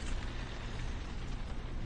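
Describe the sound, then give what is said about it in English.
Steady rain falls in a dense, even patter, a constant hiss with a low rumble beneath it and no voices. “Thank you for coming out, especially on such a rainy day.”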